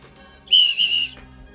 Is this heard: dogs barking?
no